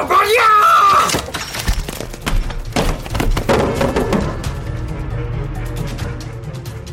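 A body hits the floor with a few heavy thuds and clattering impacts, preceded by a brief shrill, wailing tone, then settles into a low, rumbling background.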